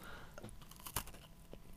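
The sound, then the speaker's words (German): Quiet bite into a stale Spekulatius spiced biscuit that had been left out for a week: one muffled, soft crunch around the middle, then a few faint chewing sounds with no speech. “Beiß, dachte, das knuspert mehr, beiße in den Spekulatius, der schon seit einer Woche draußen liegt. Deshalb knuspert er nicht mehr so.”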